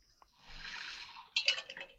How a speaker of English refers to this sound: Hang on, I got to drink some water.